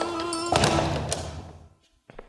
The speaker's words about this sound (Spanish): abren la puerta y entra María con el desayuno.